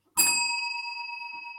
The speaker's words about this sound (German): jedes Mal, wenn du die Glocke läutest im Stream, rennt meine Katze an die Haustür.